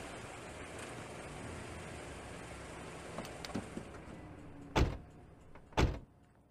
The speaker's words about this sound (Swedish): Hoppa ner så länge så ska jag parkera Teslan.